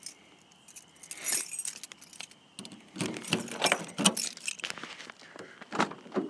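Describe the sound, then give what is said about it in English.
Car keys for a 17- or 18-year-old car without keyless entry jangle and clink in irregular bursts, fairly loud, outdoors on a cool night in southern New Hampshire, with a brief quieter stretch before a busier flurry of metallic rattling. No one speaks. “So I don't have the keyless entry or any of those cool accoutrements.”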